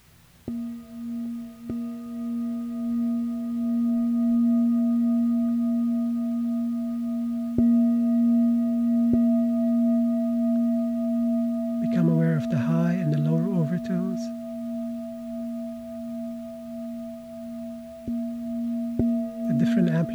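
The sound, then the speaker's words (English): A singing bowl struck with a soft felt mallet gives a warm, sustained hum with a steady low fundamental and faint higher overtones ringing throughout. A voice briefly speaks over it near the middle. “Here's a demonstration on the singing bowl. I'm going to start with the side with the, the cotton side, the felt.”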